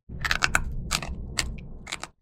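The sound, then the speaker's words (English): Loud crunching on crisp Bada Bean Bada Boom bean snacks, with several sharp, brittle crackles in an uneven chewing rhythm over about two seconds and no talking. “All with a crunch that rivals potato chips. Seriously, listen for yourselves.”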